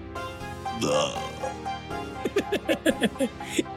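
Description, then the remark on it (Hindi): A long, deliberate burp rumbles out, followed by a quick run of short, rhythmic croaking bursts that trail off after a few seconds. “लोग चैन की सांस लेते हैं आप चैन की डकार ले रहे हैं”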